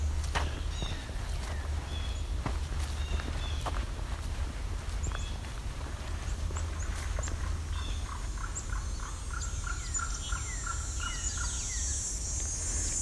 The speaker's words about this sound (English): There's our presumptive yellow-billed cuckoo.